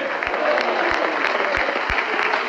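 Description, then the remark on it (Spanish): A church audience breaks into sustained, dense, loud applause to the Lord, with a few heavier low thumps recurring roughly every half second beneath the clapping. “Dele fuerte se aplauso a Él, a su nombre.”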